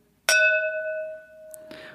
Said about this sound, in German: Ähm, lass uns kurz anstoßen. Ja, ich bin dabei. Ich habe mein Weif Weißweinglas. Ich hebe mein Weißweinglas. Ich hebe mein Rotweinglas für dich.